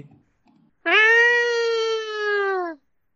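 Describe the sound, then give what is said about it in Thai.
A person imitates a cat with one long, drawn-out meow lasting nearly two seconds, steady and fairly loud, falling slightly at the end, with no other talking. “ทำเสียงแมวที”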